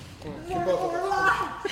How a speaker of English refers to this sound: It's our favorite new sound effect of a straight gangbang.